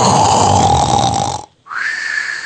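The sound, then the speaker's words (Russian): Someone vocally imitates a loud snore: a long, rough, rattling inhale, a brief pause, then a shorter, higher rising exhale. No other talking. “как храп начался.”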